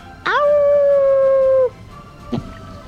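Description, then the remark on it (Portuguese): A voice imitates a wolf's howl: one loud, sustained howl that rises briefly and then holds steady for over a second, followed by a short, sharp vocal sound. “E os lobos ruivam, ruivam.”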